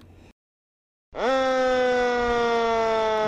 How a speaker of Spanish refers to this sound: Nunca es de agrado encontrarse con un camión de bomberos. Sirena en marcha por la calle, todas esas cosas.